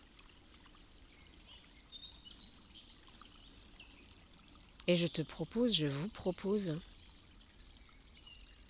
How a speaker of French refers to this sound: J'ai trouvé un petit endroit à côté d'un tout petit ruisseau au fond de la forêt, aussi loin que possible pour ne pas entendre l'autoroute, les voitures.